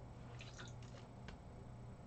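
Someone takes a quiet sip of refreshing water, a cluster of small wet slurping and squishing sounds over about a second, then near silence with a faint low hum.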